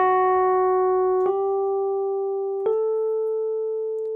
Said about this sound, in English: At the same time, guitar or a synth or something up in the upper, upper register is trying to pull it up towards A. So you hear this melody playing.